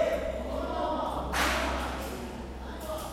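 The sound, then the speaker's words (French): A single sharp hand clap rings out midway, loud, its echo fading over a steady low background hum and faint murmur of voices; in a monks' debate, the hand clap launches a question posed to a seated monk, who must answer it. “euh, va poser des questions euh, à celui qui est assis et la question va être lancée en général par des sons de clappement de main euh, qui lancent la question.”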